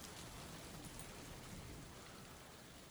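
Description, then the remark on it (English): Steady rain falls in a continuous, even hiss with soft patter, fairly quiet and unchanging throughout, with no voices. “as we fade from this scene, we see through a veil of rain two lovers locked in a passionate embrace.”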